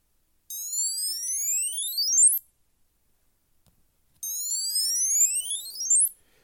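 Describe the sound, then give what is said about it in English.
Two bursts of a bright, high-pitched electronic find-me alert tone from a Bluetooth tracker tag, set off by tapping Start searching in a phone app, each a rising sweep of chirping harmonics lasting about two seconds, separated by a short silence. “So the um, that's the sound it makes.”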